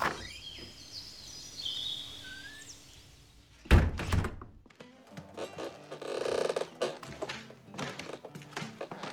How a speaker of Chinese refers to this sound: 隔天早上，一群登山客来到大门前，好奇地敲门。